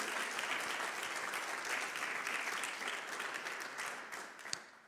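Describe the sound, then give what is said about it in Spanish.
Sustained audience applause: a dense, steady wash of many hands clapping, holding at a fairly even loudness for several seconds before thinning slightly toward the end, with no voices. “Aplaudí fuerte ahí porque es una decisión impresionante de parte de Dios.”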